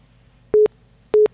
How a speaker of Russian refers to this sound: А нет, к сожалению, у нас звонок сорвался